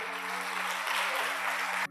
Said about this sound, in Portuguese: Forte aplauso ao Senhor, aleluia.